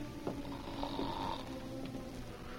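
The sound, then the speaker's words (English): Deep, rumbling, regular snoring from a person asleep under bedclothes in a dark room, steady, with a rough, rattling texture that carries on through the short stretch without any talking. “He could hear the deep and regular snoring of a person in sleep, and his eyes, not used to the darkness, could see the outline of a figure under the bedclothes.”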